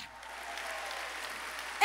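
An audience applauds God loudly, a dense, steady wash of many hands clapping that holds at an even level throughout, with no voices standing out above it.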